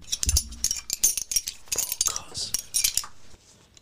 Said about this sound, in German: Es war der Xylophon.